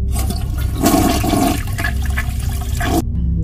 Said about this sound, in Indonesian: dan lo tahu apa yang terjadi tiba-tiba di toilet di kamar mandi itu toiletnya ngeflash sendiri dong